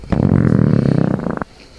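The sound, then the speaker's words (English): A single long, loud belch lasting over a second, low and guttural with a rough, rattling vibration that stutters toward the end before cutting off into quiet. “Uh, with these sudge ratings plus our signature belching sounds, here are those ratings now.”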